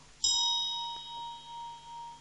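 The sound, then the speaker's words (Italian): A small bell is struck once, giving a bright metallic strike followed by a clear ringing tone that sustains and slowly fades over a couple of seconds. “che prendo questa campana che c'è qua, questo suono”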